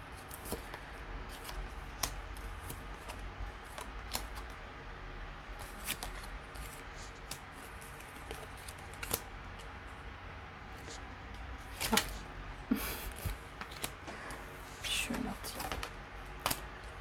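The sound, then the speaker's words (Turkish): Tarot cards being shuffled and dealt: soft papery flicks and sharp snaps come in irregular bursts, with a few louder slaps near the end over a low steady background hum. “Kartları dağıttım da o yüzden.”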